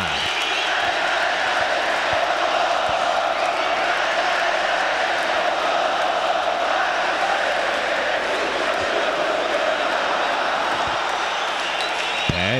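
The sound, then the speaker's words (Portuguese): A huge crowd of Grêmio football fans sings together in the stadium arena, a loud, steady roar of massed voices that continues without a break for the whole stretch. “Bonita festa aí da torcida gremista cantando muito aqui na arena.”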